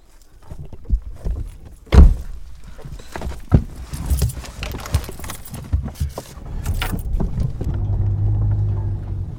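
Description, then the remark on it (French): Rustling and shuffling of someone climbing back into a car, a heavy door thunking shut, a few smaller knocks, then a low engine rumble settling in. “Voilà, donc là on remonte dans la voiture et on va, on va se mettre en face.”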